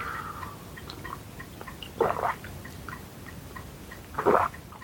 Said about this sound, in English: One good thing about lighting the fire this morning has been that I've put my kettle on top of it and I've made this pot of tea, the one I'm just going to take a quick sip of, in fact, so it doesn't get cold.